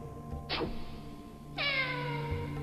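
Two cat meows, a short one followed by a longer, drawn-out one, heard alone and clearly over a faint steady background hum.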